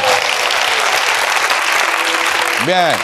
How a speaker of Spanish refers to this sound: Entiendo que es un aplauso de lástima por ti mismo, ¿no?